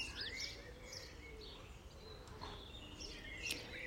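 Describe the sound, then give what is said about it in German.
Birds of many different kinds chirp and trill outdoors in nature, their high calls overlapping against a steady low background hum of open air, fairly soft and continuous throughout. “Alle Vogelstimmen der unterschiedlichsten Sorte.”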